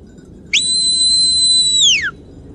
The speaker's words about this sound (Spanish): Mientras está sucediendo esta parte del día que podríamos llamarlo almuerzo en nuestra época, todo este silencio, solamente acompañado por el sonido del viento, de repente es interrumpido por un fuerte y muy muy agudo silbido.